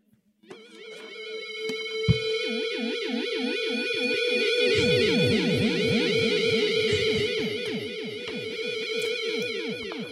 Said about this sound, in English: Yeah, I just happen to have this um, thing called a theremin. So this mm. is hmm. what sound does a theremin make?